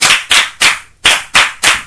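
A class of pupils claps together for a classmate during a French grammar lesson: six crisp, loud claps in sharp unison and a steady rhythm, with a slight pause midway. No one speaks over it.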